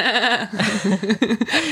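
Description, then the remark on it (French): A person imitates the horse-like whinnying laugh of Janice from Friends, a bleating, wavering voice that rises and falls in quick pulses for a couple of seconds, loud. “Janice Ah oui, Janice, celle qui rit comme un cheval.”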